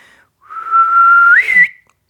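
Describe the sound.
A person whistles an imitation of the call of the Jeju bush warbler, a bird living only on Jeju: one long, steady held note that swells, then flicks sharply upward at the end. Clear and alone, with no talking.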